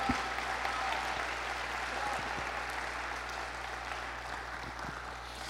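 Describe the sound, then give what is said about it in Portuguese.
A standing church audience applauds God in a steady, dense wash of clapping that holds at an even level for several seconds, with a faint low hum beneath and no clear voices. “Dê um aplauso ao nosso Pai que está aqui para nos abençoar.”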